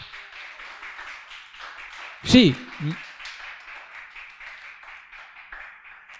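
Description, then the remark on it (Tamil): An audience claps hands for the Lord in a steady, continuous wash of applause lasting the whole clip, with a man's voice briefly calling out over it partway through. “ஒரு கைத்தட்ட குடும்பமாக ஆண்டவருக்கு”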